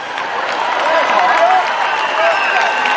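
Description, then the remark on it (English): A large crowd at an outdoor protest applauds steadily, dense clapping filling the scene, with scattered cheers and raised voices mixed in throughout a few seconds. “give her a massive round of applause”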